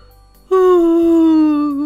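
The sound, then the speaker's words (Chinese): A voice imitates a lion crying by a river: after a brief quiet moment, one loud, sustained wailing sob rises abruptly and holds, its pitch sagging slowly downward until the end. “这时，一头狮子来到河边，哭了起来。”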